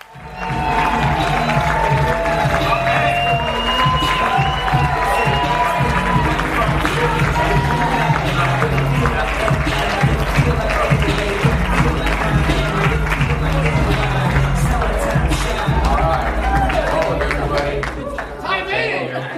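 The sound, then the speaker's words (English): A crowd applauds steadily for about twenty seconds, a dense, even wash of many hands clapping with scattered voices and cheers mixed in before it tapers slightly at the end. “Let's give a hand for that.”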